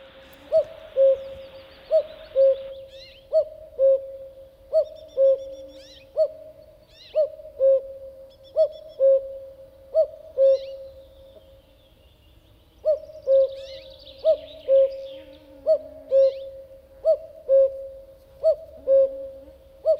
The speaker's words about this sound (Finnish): Mutta nyt kuunnellaan se ensimmäinen käki, eli tämä on se peruskäki hieman kauempaa.